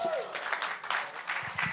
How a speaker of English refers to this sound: Come on, okay, that needs a bigger cheer than that. Come on. Woo! Come on, yay!